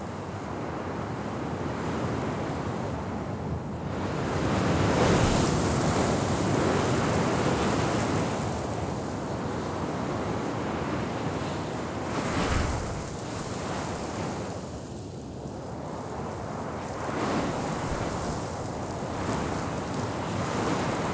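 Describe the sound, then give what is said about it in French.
Strong Saharan wind roars steadily over a sand dune 50-60 metres high, a dense rushing hiss that surges in heavier gusts every few seconds, each gust raising a thin haze of sand, loud with no voices. “Et euh, il y a un, vent qui se déchaîne terrible. Et euh, je vais vous faire profiter un peu de ce vent saharien qui est assez consistant.”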